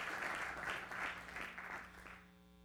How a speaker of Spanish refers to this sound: Si lo cree, levantemos un aplauso a Dios. Gracias, Señor. Gracias, Jesús. Gracias, Señor.